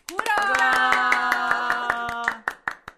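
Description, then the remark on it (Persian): A group claps hands in a quick, steady rhythm while voices hold a sustained tone together; the voices stop and a few last scattered claps ring out alone. “خب باری کلا کف زدنتونم دیگه اتوماتیک شده”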